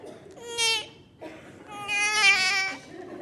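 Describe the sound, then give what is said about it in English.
A voice imitates a newborn's first cry: two strained, high-pitched wails, a short one followed by a longer, louder one, each with a bright, harmonic, rasping quality. “A baby comes out of the womb and everybody in the room is kind of just waiting till they hear that one noise.”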